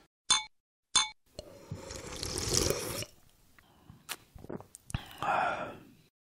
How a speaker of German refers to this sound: Na, dann trinken wir jetzt mal ein Schlückchen auf die Paranoia von meinem Nachbarn. Prost. Jo, Prost.